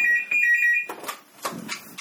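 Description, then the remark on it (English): A phone rings with a bright, high electronic trill in quick repeated pulses for under a second, then cuts off, followed by rustling and handling noises. “Oh, oh my god, the phone.”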